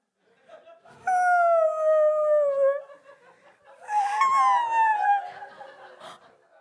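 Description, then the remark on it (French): Voices imitate a mournful whale call with two long, sliding wails, the first a steady falling moan and the second rougher, with several voices overlapping. Both are loud, with short quiet gaps. “Allez, les amis, on fait bruit de la baleine triste.”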